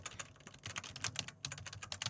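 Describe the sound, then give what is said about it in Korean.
Rapid, uneven keystrokes clatter on a compact Logitech K380 computer keyboard, a dense run of light clicky taps with brief pauses, steady at moderate loudness and with no voices. “키보드인데 아 키보드 로지텍이구만.”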